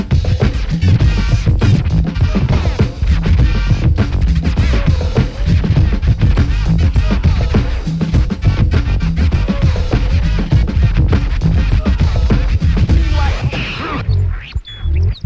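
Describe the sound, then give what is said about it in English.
A finger-powered homemade record player with a needle and cone plays a record, giving a loud, continuous scratchy, crackling sound with faint wavering tones for about fourteen seconds before it stops abruptly. “just completed your very own finger-powered record player.”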